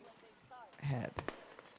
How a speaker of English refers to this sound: Do we have a firework? There's a firework. Yeah. Uh. Okay. So. Yeah. Uh, fireworks are wow. kind of overhead.